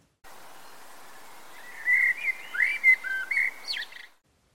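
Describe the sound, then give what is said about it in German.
A Eurasian blackbird near a house sings a fluting, warbled phrase of several clear notes rising and falling, ending in a higher twittering flourish, over a faint steady background hiss. “Hausnahe Amsel, lieber darfst du mich wecken als der Straßenlärm.”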